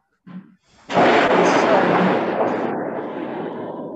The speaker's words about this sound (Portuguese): Acabou de cair um, Nossa, um relâmpago tá... aqui que eu, que eu é, tá quase tá... caí de costa. Tá chovendo forte, hein?